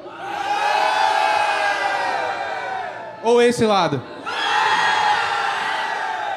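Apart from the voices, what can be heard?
audience cheering loudly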